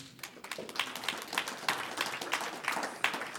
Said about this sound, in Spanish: un aplauso